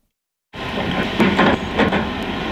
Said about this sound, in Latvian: Pie Daugavas jēkapelī rūc traktori un vērojama strādnieku rosība. Beidzot pilsētā sākušies ilgi gaidītie Daugavas aizsargvaļņa būvdarbi.